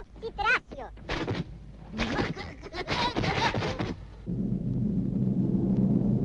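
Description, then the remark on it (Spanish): Fireworks set off at a volcano, exploding in a rapid run of sharp bursts and crackles, with a brief whistle near the start, then giving way to a steady low rumble. “Larguirucho enciende los fuegos artificiales.”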